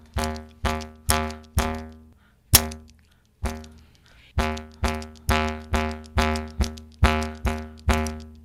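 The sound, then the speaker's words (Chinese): A 3D-printed, one-piece plastic jaw harp twanging in a string of sharp plucks over a low, buzzing drone, with bright ringing overtones; a brief pause breaks the rhythm before the plucks resume steadily. No talking. “他三 D 列印那塑胶的材质，嗯，那就一体成型的口簧琴，它声音也也蛮有趣，但是跟传统的铜簧的那个铜片的那个 不一样， 不太一样。”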